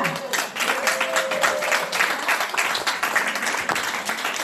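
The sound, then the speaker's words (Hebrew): A crowd applauds steadily, a dense patter of many hands clapping at a fairly even loudness for several seconds, with a brief faint tonal call or whistle rising above it early on. “לא מחיאות כפיים לעבודה, לעבודה, להיכנס פנימה”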